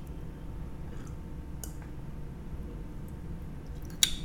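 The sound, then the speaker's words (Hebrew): Someone quietly sips water with aloe vera from a glass: a few soft, wet mouth clicks and swallows spread out over low background hiss, ending with one slightly sharper click. No one speaks. “שנייה, אולי תשמעו את הלגימות שלי.”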